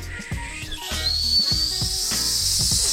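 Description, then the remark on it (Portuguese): A voice mimics the jet turbine of the Batmobile from a Batman film spooling up: a breathy hiss with a whistle that rises and then holds high and steady, fairly loud, over faint low thumps. “só o som da turbina das coisas, cara, já deixa com medo”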